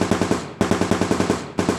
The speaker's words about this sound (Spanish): Recibió tres ráfagas de disparos, en cada uno pidió piedad y se levantaba para seguir corriendo hasta que ya no pudo más y cayó desfallecido, recibiendo el último tiro de gracia.